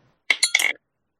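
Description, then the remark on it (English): A small hard twenty-sided die tumbles and clinks across a surface in a quick run of three or four bright taps, lasting under half a second before stopping. “Actually, well, that was that was my twenty.”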